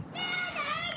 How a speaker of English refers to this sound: I'm sure you can hear her screaming.